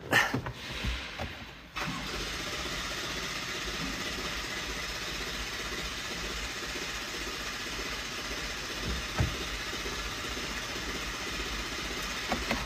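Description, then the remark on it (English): A truck that was towed in because it won't start cranks with a steady, grinding churn that never catches, following a few brief clunks at the start; fairly loud, with no talking. “This truck was towed here because it won't start.”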